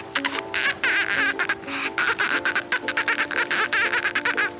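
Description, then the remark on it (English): A child from Maui, Hawaii imitates a dolphin with rapid, high-pitched squeaky chattering and clicking bursts, fairly loud, continuing in quick uneven pulses for several seconds with no other talk. “that was dolphinitely the best dolphin impression I've ever heard.”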